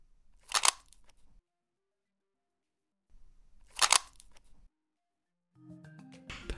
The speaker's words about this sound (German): Man hätte denken können, es handelte sich hierbei um einen Tacker und sie Tackernadeln, aber es war tatsächlich das Umdrehen einer Pfefferminzdose so wie ich sie hier gerade in den Händen halte.